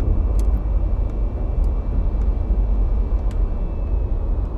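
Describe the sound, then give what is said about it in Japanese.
A car approaches from behind, heard as a steady, loud low rumble of engine and road noise that barely changes, with a few faint clicks on top and no talking. “速度注意おやる気のありそうな車が後ろから来た”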